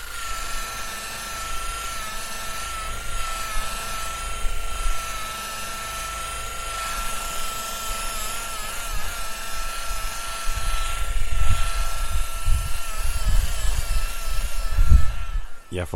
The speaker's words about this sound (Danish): Og apropos polering, så lød det nogenlunde sådan her i tre dage træk over på Forborg Værft.